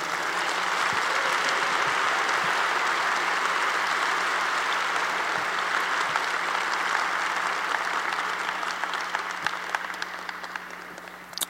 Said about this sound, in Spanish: ¿Cuántos han recibido el bien de Dios? Pues dale un fuerte aplauso a Jesús.